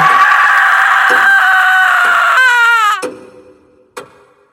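A woman lets out a loud, piercing scream in a house as a gunshot is fired, held for about three seconds, its pitch wavering and then dropping before it cuts off. A short, sharp knock follows in the quiet afterward.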